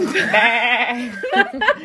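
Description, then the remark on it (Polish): A person imitates the bleat of a ram being shaved with a long wavering "baa" held for about a second, followed by a few shorter, choppier bleating sounds, fairly loud. “Jakie dźwięki wydaje baran, kiedy go golisz?”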